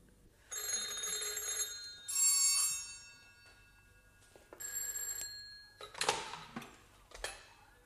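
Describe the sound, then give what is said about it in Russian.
Three telephone bells ring in overlapping bursts, their shrill metallic jangling starting and stopping in turn, loud, with no voices. “Снова о трех телефонах и радио.”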